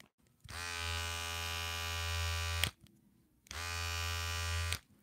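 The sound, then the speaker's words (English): A roughly three-year-old cordless hair trimmer, running with noticeably decreased power, buzzes in two bursts, about two seconds and then just over a second, each a steady electric drone with a short quiet gap between. “There's a noticeable noticeable decrease in power over the over the life of this, well, clipper or trimmer, but in this case, this is a trimmer.”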